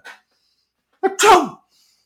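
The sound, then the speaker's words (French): A voice imitates a convenience store counter clerk sneezing once, loud: a short breathy lead-in, then a sharp, hissing burst, preceded by a brief faint sound at the start. “le, gars de le comptoir, il s'est mis à éternuer. C'est pas des mots”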